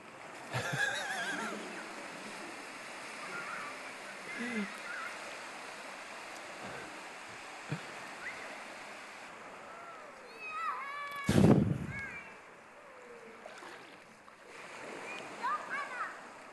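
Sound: ocean waves splashing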